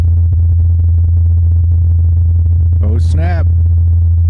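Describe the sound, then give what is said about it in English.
A helicopter's rotor hums while flying on Mars, in the Martian atmosphere, as a steady, low-pitched drone that holds unchanged throughout, with a short spoken exclamation breaking in near the end. “This is the sound of a helicopter flying on Mars.”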